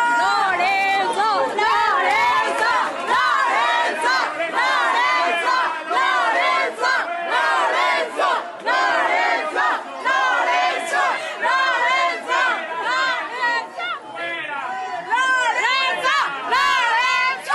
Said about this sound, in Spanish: Del otro lado estaban echándole porra a Lorenzo oh, Córdoba. Exacto. ¡Viva Lorenzo!